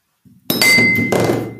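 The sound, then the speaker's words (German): The glass stopper of a whisky bottle drops with a soft knock, then hits hard and clinks, leaving a bright ringing tone that lingers and slowly fades, with no talking. “Nee, das ist mir gerade der Korken ja runtergefallen.”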